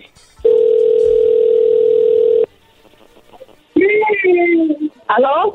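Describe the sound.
A telephone line rings once with a loud, steady, mid-pitched tone lasting about two seconds, then falls quiet before a voice picks up and starts talking.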